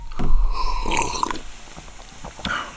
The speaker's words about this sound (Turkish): Şimdi önümde bir bardak su var. Ben bunu içeceğim. Bunu konuşma esnasında içiyorum. Bismillahirrahmanirrahim diyorum. İçtim.